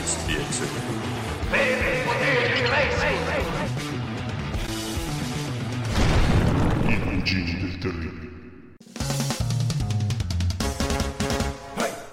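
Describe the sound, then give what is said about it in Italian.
A loud, densely layered new theme jingle plays throughout, busy and bright, cutting out abruptly for a split second near the end before surging back in at full volume. “Avete sentito la nostra nuova sigla?”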